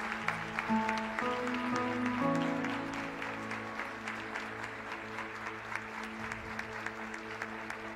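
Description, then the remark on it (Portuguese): An audience applauds steadily throughout in honour of a person, the clapping fairly even and rhythmic, with sustained keyboard-like chords playing underneath at moderate volume. “Que Deus abençoe e aplauda ao Cauã.”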